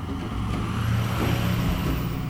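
Steady, loud rumble of traffic on an expressway, engines droning continuously with a faint rising whine over the top, vehicles streaming past on the fast road while a person walks along it; 35 degrees in the shade.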